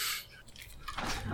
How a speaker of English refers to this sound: Uh, my dog is squeaking a toy crab in the background. if it comes through in the recording, it's okay.